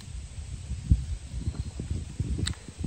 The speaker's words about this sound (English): You'll hear the wind rustling through the trees.